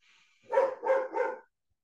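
A dog barks three times in quick, even succession, each bark sharp and fairly loud, then silence. A faint high hum can be heard just before the barks.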